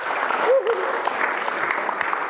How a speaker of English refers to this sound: I think God deserves an extraordinary round of applause for that.